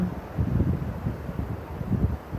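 A steady, low rumbling wash of ocean surf, continuous and moderately loud, with soft swells rising and falling beneath a breezy, windy hiss. No voices are heard.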